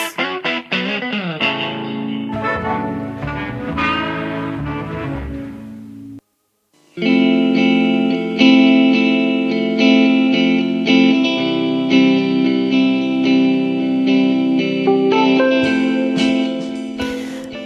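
Recorded music with rich harmonic tones and layered effects, a short full stop of silence around six seconds, then the song resumes at a steady, loud level with sustained chords.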